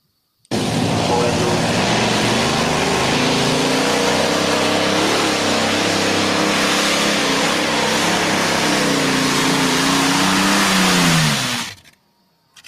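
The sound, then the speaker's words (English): A loud supercharged car engine, its front motor fitted with a prototype supercharger, revs steadily for about eleven seconds, a high mechanical whine riding over the roar as the pitch climbs and dips, then cuts off abruptly. “Yeah, because you can hear it whining.”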